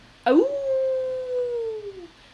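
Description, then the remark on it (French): A single spooky werewolf howl, a Halloween creature sound, bursts in sharply, swoops upward, then holds a long wavering note that slowly sags and fades after about two seconds, heard alone and fairly loud. “Un loup-garou loup-garou.”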